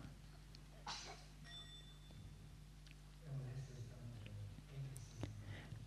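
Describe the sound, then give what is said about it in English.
A single soft, light tap on a meditation bell, a small half sound before the full sound of the bell, rings briefly and fades quickly, followed by faint murmuring voices. “So we start with that small half sound. It's to to warn people, to alert them that a full sound of the bell is coming.”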